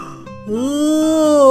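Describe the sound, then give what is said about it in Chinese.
A drawn-out, deep groaning yawn voiced by a person imitating a giant dragon, starting quietly after a brief pause and swelling louder as it stretches for about a second. “其实他还有一点点愧疚，但最后还是无聊的打了个哈欠。”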